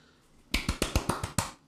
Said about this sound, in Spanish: Felicidades, aplausos.